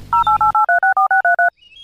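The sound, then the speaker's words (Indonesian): A quick run of about ten crisp, evenly spaced dual-tone dialing beeps from a phone keypad as someone dials their mother, each short and clear, with a low hum at the start and faint noise afterward. “Ih, aku menelepon mamaku dulu.”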